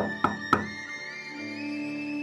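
Two sharp knocks on a bedroom door, about a quarter second apart, followed by a sustained musical tone that lingers under the quiet.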